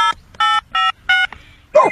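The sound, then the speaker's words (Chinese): A phone number being dialed on a phone to call a missing phone so that it rings: four short, bright keypad beeps in a steady rhythm, each a clear electronic tone, followed by a brief sliding vocal sound at the very end. “哦，可以用我的电话打一下你的电话，这样就能听到电话铃声了。”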